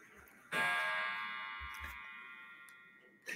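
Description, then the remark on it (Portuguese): A clock sounds with one loud, ringing metallic strike that hangs and slowly fades over a few seconds, a couple of faint ticks underneath, and another strike beginning right at the end. “Que tinha esse. esse tinha esse, esse, esse relógio. relógio. Nossa, dá até um pouco de medo.”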